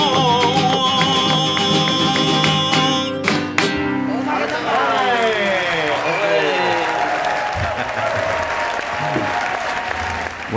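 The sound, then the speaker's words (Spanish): Music played with an orchestra ends abruptly and loud, sustained audience applause for Jesus takes over, a dense steady clatter of clapping with a few voices rising through it before it gradually thins. “además con aplausos, Jesús.”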